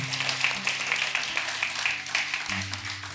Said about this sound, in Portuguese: Aleluia. Você pode celebrar, dar palmas a Ele, aquele que vive e reina.